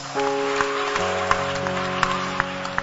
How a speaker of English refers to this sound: The clapping can be better than that. Our clapping can be better than that.